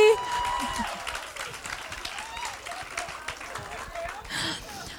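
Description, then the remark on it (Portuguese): A crowd claps steadily for about five seconds, a dense wash of many hands with scattered cheers and murmuring voices mixed in, holding a fairly even loudness throughout. “Mas eu venci, podem aplaudir.”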